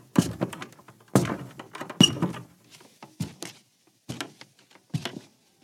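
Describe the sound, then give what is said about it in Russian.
An old, dilapidated wooden door is handled as someone passes through it: a run of hollow thuds, knocks and rattles over several seconds, as if it is being pushed open and shut, with short quiet gaps between. “Кирису прошел ветхую дверь”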